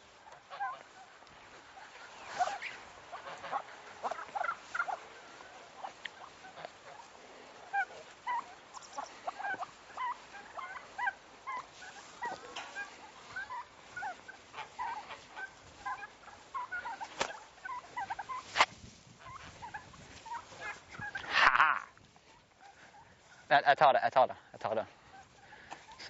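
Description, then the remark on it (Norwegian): A flock of geese being herded in honks and cackles almost nonstop, a busy chatter of overlapping calls, with a few louder, harsher bursts of honking toward the end. “Jeg lurer på om du skal stå der i tilfelle gjessene vil løpe inn.”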